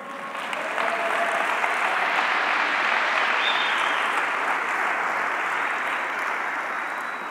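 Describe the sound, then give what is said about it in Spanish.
A church audience bursts into sustained applause for Christ, dense and steady for several seconds, a roomful of clapping hands with no speech over it. “Vamos a darle un aplauso a Cristo.”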